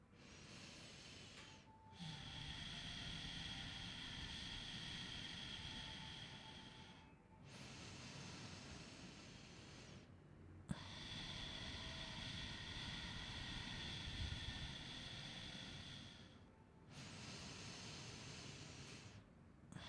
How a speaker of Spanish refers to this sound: Cada vez escucho menos los sonidos de fondo y sigo caminando. Solo escucho mi respiración.